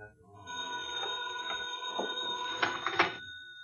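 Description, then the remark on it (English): A pay phone in a booth rings at night with a continuous metallic bell tone for about three seconds, steady, with faint clattering mixed in before it cuts off. No one speaks. “Well, look, you can just let it go and it'll stop ringing.”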